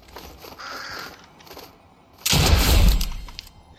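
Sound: bird cawing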